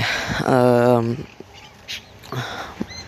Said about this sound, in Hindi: birds की चिल्लाने की आवाज़ आ रही है यहाँ एक भी क्रो नहीं दिखता ज़्यादा से ज़्यादा बहुत सारी चिड़ियाँ हैं